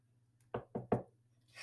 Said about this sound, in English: Knocking on the wood. Come in. no one's at the door. I'm, I'm just knocking on wood because I want to see them score before halftime